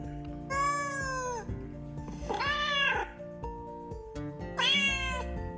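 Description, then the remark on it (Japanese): Three drawn-out meows from the cat Nekobayashi, fairly loud, evenly spaced with short pauses between them, over a steady low background hum. No one speaks. “えー、毎回ですね、僕が翻訳するんですが、そろそろ皆さんもね、僕が猫林語を翻訳しなくてもですね、ご理解いただけると思うので、えー、今日は翻訳はしないってわけにはいかないですね、猫林さんね。”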